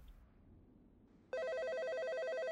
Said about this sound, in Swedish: Men någonstans där på, på natten så, så ringer telefonen. Då är det min far som då var ansvarig för sjöräddningsstationen på Käringön som ringer och, eh, så, och då, då min fru hon svarade, det var min trådtelefon